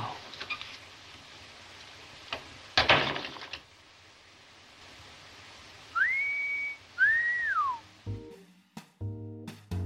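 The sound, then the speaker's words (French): A person whistles two short, clear notes in succession, the second sliding upward then falling away, heard after a brief sharp noise and followed by soft tonal sounds. “la scène culte du port de l'angoisse, où elle lui apprend à siffler”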